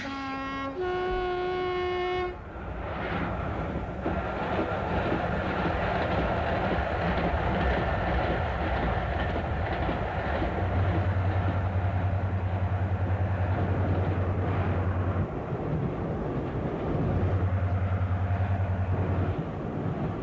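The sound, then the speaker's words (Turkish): A train rolls steadily along the tracks with a continuous rumbling clatter, opening with a brief tonal whistle and later joined by a low droning hum. No one speaks. “Eh, trende kalamayız”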